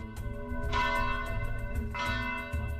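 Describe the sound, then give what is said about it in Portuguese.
A church bell rings loudly with two strong strikes about a second apart, each leaving a long, shimmering hum of overtones that carries through the whole stretch, with no voices. “O sino estava a tocar, já há quase um mês que estava a arranjar, e possivelmente estão a testar para ver qual é a sonoridade e a estrutura, como é que ficou.”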